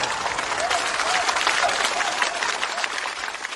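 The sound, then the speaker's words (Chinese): Steady, sustained applause from an audience welcoming Feng Gong onto the stage, a dense wash of many hands clapping at an even, fairly loud level throughout, with a faint murmur of voices blended underneath. “掌声有请冯巩闪亮登场。”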